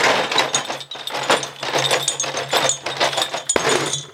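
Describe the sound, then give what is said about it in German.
A crate of beer bottles being dragged over into a moon capsule, with a steady stream of glassy clinks and rattles, a low scraping rumble underneath and one sharper knock near the end. “Komm, die Kiste, die schleppen wir rüber in die Kapsel.”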